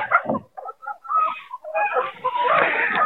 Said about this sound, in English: All right, those chickens all gathered around. I just dumped it out. Yummy, yummy, huh? You guys are so fun to watch when you eat.